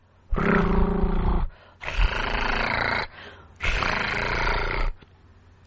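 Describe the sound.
A voice performs three long rolled-R tongue trills as a pronunciation exercise for the R sound, each a sustained buzzy rattle lasting over a second, separated by short pauses, fairly loud with no other speech.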